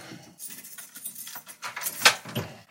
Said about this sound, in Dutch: heeft ook echt nog zo'n ouderwetse sleutelbos waar conciërges vroeger mee door de middelbare school liepen.